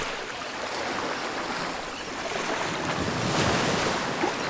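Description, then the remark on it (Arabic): Steady ocean waves wash and roll continuously out at sea, with a gusty wind roar over the water and a swell building louder near the end; no voices. “سفينة القبطان فتحي كانت بعرض البحر وفجأة ضربت بجبل جليدي وما ظل غير القبطان فتحي وأبو السيم ضايعين في البحر”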